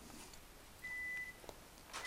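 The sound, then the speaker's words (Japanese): A washing machine's end-of-cycle beep: one steady, high electronic tone held for about half a second, then faint short blips near the end over a low background hiss. “あ洗濯機が終わりましたね”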